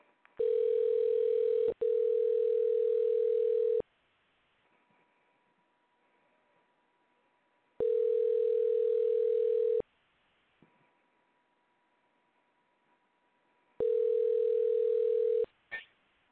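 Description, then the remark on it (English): A telephone ringback tone on an outgoing call: three steady, loud electronic rings, each about two seconds long, separated by roughly four seconds of near silence with faint line noise. “We heard the ring dial, but let's try again.”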